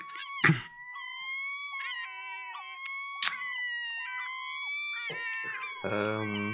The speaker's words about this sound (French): Vous entendez ces, petits, cris de goélands, de mouettes qui sont vraiment autour et qui font le. qui volent de façon circulaire.